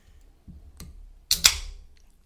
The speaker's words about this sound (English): Ooh, that sound. Have we been editing out the um, can opening sounds from previous episodes? Because I hope not. I think there's at least two. I think that might be the third.